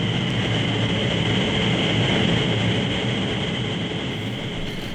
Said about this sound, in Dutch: ja, je, je staat in een soort koker, een enorme koker, op een raster. En onder dat raster wordt met een turbine eh, wind naar boven geblazen. Van, eh, met, met een snelheid van 130 eh, km per uur. Dat kunnen we even horen nu.